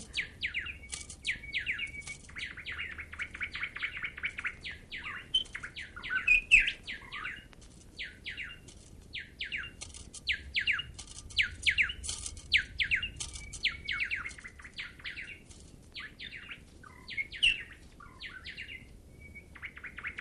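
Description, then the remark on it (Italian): A nightingale sings continuously in rapid, varied bursts of whistles, trills and chirps, fairly loud, with a soft low background hum and no voices. “Quanto al canto vedremo come se la caverà in questa gara.”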